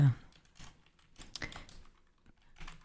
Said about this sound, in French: Euh, alors, je vais peut-être faire des fautes de frappe. Oh, c'est pas grave, c'est juste pour que j'ai.